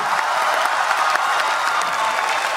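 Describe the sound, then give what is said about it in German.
Sustained applause from a large crowd of government leaders and delegates at the 2015 UN Climate Conference as the Paris climate agreement is adopted. A dense, steady wash of many hands clapping at once, loud and continuous throughout, with no individual voices standing out. “Ja, damals haben die Regierungschefs noch geklatscht und sich gefreut über den Durchbruch, über die Einigkeit.”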